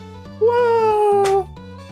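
A single drawn-out, whiny baby cry rises and holds for about a second, loud, over a steady looping backing of music.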